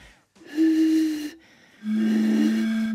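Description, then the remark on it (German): Two breathy, hollow hoots from whistling across just the edge of a bottle's opening, each held about a second, the second a touch lower and wavering at first before steadying, with no talking. “nicht ganz drüber pfeifen über die Flaschenöffnung, nicht so, sondern nur so ganz kleines bisschen, nur den Rand der Öffnung nehmen und da drüber pfeifen”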